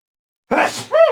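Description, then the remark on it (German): A single loud sneeze from a man after a fly flew into his nose: a sharp breathy burst followed by a short voiced tail, with silence before it and no talking. “Los, kurz vom Niesen.”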